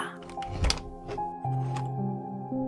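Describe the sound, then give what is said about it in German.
The handle of a dark blue door is pressed down with a sharp, solid clunk, followed by a few lighter clicks as the door opens, all over a steady low humming drone with no voices. “Du drückst sie herunter und öffnest die Tür.”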